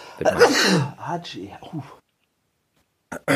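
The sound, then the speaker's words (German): A single loud sneeze bursts out, trailing into a few breathy vocal sounds, then a short silence before someone briefly speaks. “Gesundheit. Danke.”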